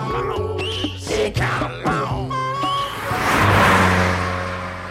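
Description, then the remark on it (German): A car engine runs and revs up on a street, its pitch climbing through several accelerating surges before settling into a broad, loud roar toward the end. No one speaks. “Das Auto.”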